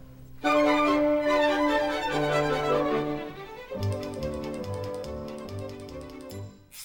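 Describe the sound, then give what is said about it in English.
A ballet orchestra in San Francisco plays a bright, lively passage while rapid typewriter keys clack along in quick rhythmic bursts as part of the piece, the percussive tapping growing more prominent in the second half before the music fades. “a few places where it, uh, it gets a little bit more intricate, but uh, that essentially is the typewriter song.”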